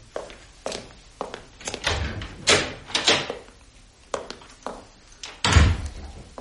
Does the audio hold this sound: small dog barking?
no